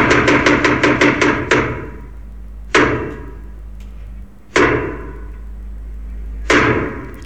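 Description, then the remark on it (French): A short percussive intro jingle: a quick flurry of about eight sharp hits, then three loud, booming strikes roughly two seconds apart, each ringing out over a low sustained tone. No one speaks. “Ah, ça fait tellement longtemps qu'on n'a pas entendu ce, petit jingle.”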